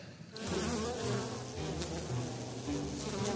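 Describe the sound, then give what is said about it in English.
A colony of angry bees hums steadily, many overlapping buzzes forming a continuous, wavering drone that swells slightly as it goes, with no voices present. “to church or tend a colony of angry bees.”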